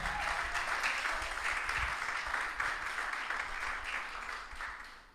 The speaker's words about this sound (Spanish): Aleluya, gloria a Dios. Apláudale si le va a aplaudir.